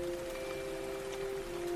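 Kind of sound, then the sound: nature, rain falling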